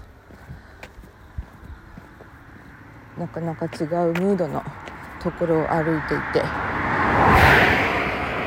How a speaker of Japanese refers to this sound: 今はねそうそうなんか誰もいないところに差し掛かっていてあ車が来た